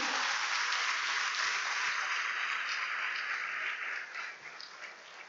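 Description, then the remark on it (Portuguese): An audience applauds the Lord Jesus Christ, a dense, steady wash of many hands clapping that holds for several seconds and then begins to thin and fade toward the end. “Aplauda o Senhor Jesus Cristo.”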